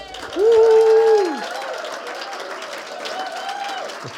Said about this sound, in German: Können wir der Band mal einen dicken Applaus geben?